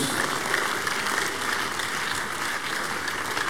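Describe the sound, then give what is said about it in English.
A church audience, risen to its feet, applauds as praise to God after a testimony, in a dense, steady burst of clapping that fills the whole clip, loud and continuous with no clear gaps or individual claps standing out. “Now give him a bigger clap of praise.”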